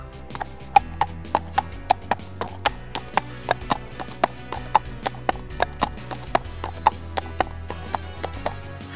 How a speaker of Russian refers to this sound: слышали, как застучали копыта лошадей, везущих повозку, в которой ехал князь Андрей Львов, к слову, представителя рода, восходящего еще к Рюриковичам.